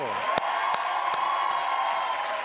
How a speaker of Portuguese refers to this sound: Então, vamos comemorar. Aplaudam o mestre ….